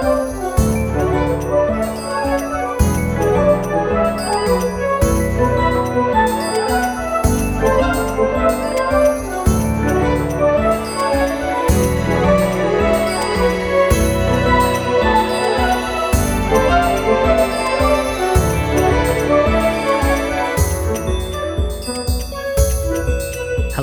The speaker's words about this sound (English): it sounds kind of like Disney esque and sort of orchestral and kind of morphs between that and this electronic craziness